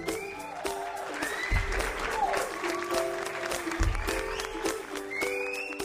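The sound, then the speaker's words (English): A small group claps steadily for about six seconds, a dense, even patter of sharp hand claps with some scattered voices and whoops mixed in. “More dabbing, clapping.”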